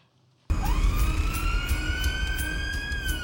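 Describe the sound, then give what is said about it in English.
An ambulance siren starts abruptly and wails loudly, a steady rising tone held over heavy engine rumble, with no voices. “should we show a clip of the ambulance, which might be useful to remind us?”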